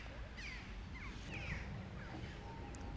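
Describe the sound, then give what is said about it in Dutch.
Crows caw a few times, harsh calls spaced irregularly over a steady low outdoor rumble, fairly faint with no voices present. “kraaien geven commentaar. Een beetje cynisch commentaar.”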